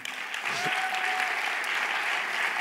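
An audience claps steadily, a dense wash of many hands applauding at an even loudness throughout, with no voices standing out.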